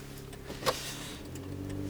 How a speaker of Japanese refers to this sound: まあ、だいぶね波形を見る限りではですねあの車のエンジン音がそれなりにどうも、まあ、エンジン音っていうかねいろんなこういう騒音がねえ混ざっているように感じますけども